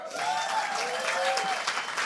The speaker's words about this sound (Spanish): Y entonces empezamos a preparar la primera reunión con un grupo de mujeres maravilloso de Ella Core, que le damos un fuerte aplauso.